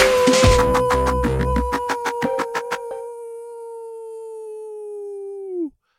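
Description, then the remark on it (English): A single long, wolf-like howl holds one steady pitch for about five seconds before dropping off abruptly, with a burst of rough noise and a run of quick rhythmic taps in the first half. “Happy howling on Friday.”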